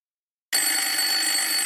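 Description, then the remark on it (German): A loud, bright telephone ring for an incoming emergency call starts abruptly after a short silence and sustains steadily for over a second, clear with no voices. “Äh, Moment mal, da scheint es einen Notruf zu geben”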